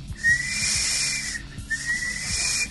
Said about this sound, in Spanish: yo quiero que me ayudes a, registrar el chiflidito del carro de camotes,